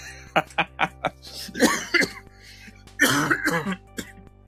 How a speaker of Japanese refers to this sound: 最近ちょっと咳が、咳が、あの、花粉症がね、ちょっとひどいんで、咳が出ちゃうんですよ。